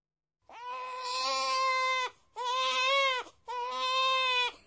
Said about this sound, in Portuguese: Esse é o som de um bebê chorando alto. Em japonês, existe uma expressão para isso. Onya, onya.